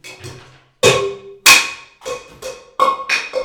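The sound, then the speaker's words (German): A cup falls and clatters, with a burst of sharp, ringing knocks. Two loud hits come first, then several quicker, lighter bounces. There is no talking. “ja, da, da ist gerade ein Becher runtergefallen.”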